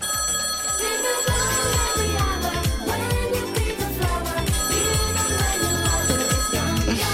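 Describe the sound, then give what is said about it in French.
A telephone rings on an outgoing call, a loud, steady ringtone with a musical, beat-driven pattern repeating for several seconds with no voices. “Je vous ah propose qu'on bah, l'appelle tout de suite. Appelons-le. Allez, on l'appelle.”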